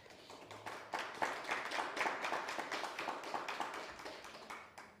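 A small audience applauds a newcomer to the group, a steady run of overlapping claps that lasts several seconds before tapering off at the end, with no one speaking.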